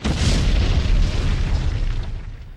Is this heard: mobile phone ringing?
no